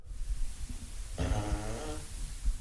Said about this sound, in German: Möchtest du noch ein Furzgeräusch hören? Auf jeden Fall.